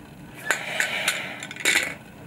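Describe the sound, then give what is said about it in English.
Three ping-pong-sized balls rattle and clack inside a plastic spirometer tube as a 45-year-old woman blows into it, practicing her breathing during coronavirus recovery: a few sharp irregular clicks over a steady breathy hiss, fairly quiet. “She's trying to force these three ping pong sized balls to the top of this plastic tube called a spirometer.”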